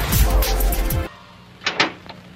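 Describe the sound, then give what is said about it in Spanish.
A door opens with a loud, rattling clatter lasting about a second, then falls quiet before two quick, sharp clicks. “Abra la puerta, don Chente.”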